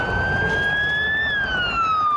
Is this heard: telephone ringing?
no